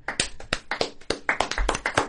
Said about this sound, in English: let me give you guys an applause